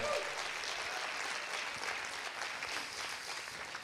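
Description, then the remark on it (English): Steady audience applause, a dense wash of many hands clapping at a fairly loud, even level for a few seconds with no one speaking over it. “Come on, can you put your hands together for that?”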